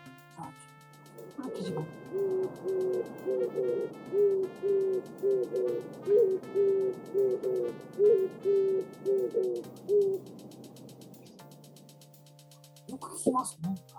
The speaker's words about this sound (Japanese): で、キジバトも多分ね、よく聞くと思うんですけども、なかなか特徴的な面白い鳴き声です。